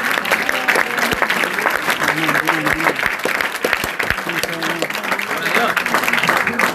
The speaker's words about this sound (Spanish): Pero si alguien puede creer, celebre con una ofrenda de palmas en el cielo.